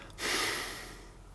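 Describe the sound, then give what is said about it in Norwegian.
A single forceful breath exhaled, a breathy rush lasting about a second that starts abruptly and slowly fades, with no talking. “etter jeg har pustet ut, sånn at det bygger seg opp CO2.”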